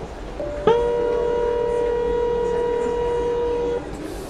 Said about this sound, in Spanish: Inmediatamente llega el subte.